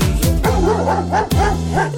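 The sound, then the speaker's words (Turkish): Voices mimic dogs on a farm barking, a quick run of bouncy 'woof' sounds in a steady rhythm, sung loudly in Turkish over a bright musical accompaniment. “Çiftliğinde köpekleri var”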